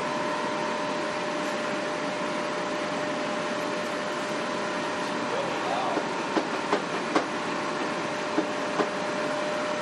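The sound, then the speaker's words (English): A monorail train departs and runs with a steady, dense rumble and a constant mid-pitched whine, while sharp clicks and clacks start popping up irregularly in the second half. “The monorail will depart momentarily.”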